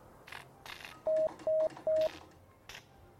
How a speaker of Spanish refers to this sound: Han sonado tres puntos en código Morse. Es el mensaje planeado porque es la letra S. Esa es toda la extensión que tiene el primer mensaje transoceánico, pero sin hilos, de la historia.